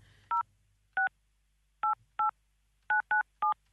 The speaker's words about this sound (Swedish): Då ringer vi nu på en gång, hoppas att hen svarar.